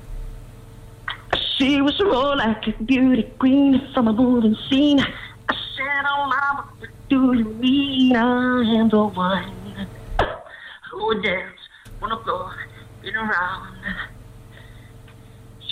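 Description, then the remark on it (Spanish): A man sings an upbeat pop melody through a narrow, tinny telephone line, his voice bending through sustained notes and quick phrases, with a brief dropout near the end. “Si quieres, puedo cantar un trocito.”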